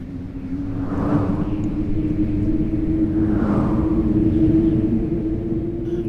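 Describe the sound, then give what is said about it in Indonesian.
A thunderous boom and a very strong gust of wind at night, swirling thick dust: a loud, sustained low roar with deep rumbling underneath and two broad gusts swelling up over the steady din. No voices are heard. “Sekonyong-konyong terdengar suara menggelegar, dan dia terlempar ke tanah oleh hembusan angin amat keras.”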